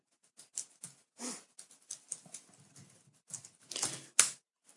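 Typing on a sticky computer keyboard: irregular clacks and taps of varying loudness, with a few sharper, louder keystrokes toward the end and no voices.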